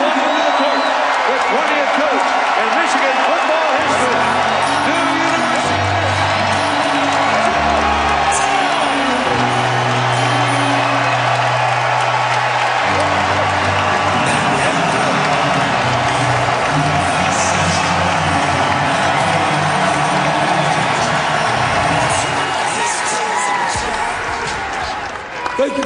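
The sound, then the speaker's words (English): A large arena crowd of fans, alumni and students cheers and roars continuously at halftime of a University of Michigan men's basketball game as a new head coach is introduced, with whoops and shouts rising over a dense wall of noise, while low booming tones pulse underneath, like music or an announcer over the sound system. “Then he was introduced to fans, alumni, and students at the halftime of a Michigan men's basketball game.”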